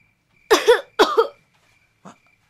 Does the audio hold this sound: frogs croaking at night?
no